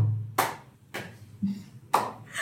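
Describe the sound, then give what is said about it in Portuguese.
Slow, deliberate hand claps, three sharp ones and a softer fourth, spaced roughly half a second apart, moderately loud with no talking. “aí ele chega e começa a aplaudir, mas ele vai assim.”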